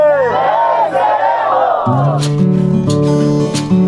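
A crowd of voices chants together loudly, rising and falling in unison, then shifts into steadier sustained tones with sharp rhythmic accents in the second half.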